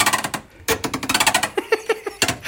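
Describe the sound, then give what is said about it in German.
A refrigerator door, being opened and closed, squeaks in a quick, rhythmic series of chirpy, rattling squeals, like a dolphin, fairly loud, with no voices. “Gestern öffne ich den Kühlschrank hier und hör mal bitte kurz, ob du das hörst. Dieser Kühlschrank ist in Wirklichkeit ein Delfin.”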